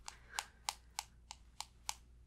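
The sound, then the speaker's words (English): Soft, crisp taps from someone typing information into a phone screen, about seven light clicks in a fairly steady rhythm, quiet, with no voices. “I'm just putting the info into my phone. I'm just typing it in there.”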